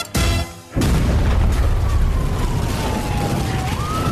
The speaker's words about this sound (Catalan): La sirena que refresca el teu paladar, Cherry Tanqueray, i que un tanque de gasoil explosionando no te impida darle un gustito al cuerpo.